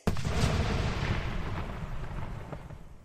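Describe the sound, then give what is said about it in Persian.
A sudden loud blast like a small bomb going off as Ron's magic-taped wand, raised by Lockhart casting Obliviate, explodes. A heavy, deep rumble follows, staying strong for a few seconds before slowly easing, with no voices. “چوب دستی با شدت بمب کوچکی منفجر شد.”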